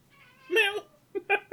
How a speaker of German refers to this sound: Gott, da ist, da ist sogar die Katze sogar richtig empört, ne?